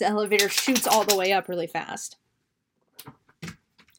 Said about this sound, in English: And I'm so sorry for that noise. That was my dog shaking again. Different dog though. That was blue.